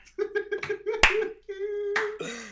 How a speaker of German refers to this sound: Dafür ein Applaus. Ja, Bravo